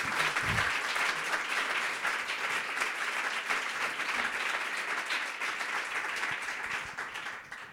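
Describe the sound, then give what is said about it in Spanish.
Steady applause from an audience in Madrid for a guest who travelled to the event, a dense wash of many hands clapping at an even, fairly loud level for several seconds before easing slightly at the end. “Así que, por favor, este aplausos para, ti por este, este esfuerzo.”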